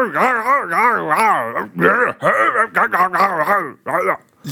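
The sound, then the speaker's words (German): A man makes loud, strained grunting vocalizations, imitating Arnold Schwarzenegger's effortful groans: several drawn-out, wavering bursts with a warbling pitch and brief breaks between them. “dieses Geräusch, was ihr gerade gehört habt von …, wie er versucht, Arnold Schwarzenegger zu imitieren”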